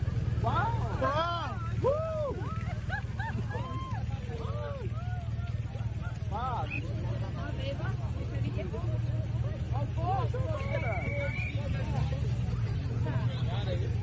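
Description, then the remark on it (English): Heavy street traffic in London idles with a constant low engine rumble, while warbling, rising-and-falling siren tones repeat throughout from the motorcade of the president of the United States, stuck at a standstill in the traffic. “This is the motorcade of the president of the United States getting stuck in London.”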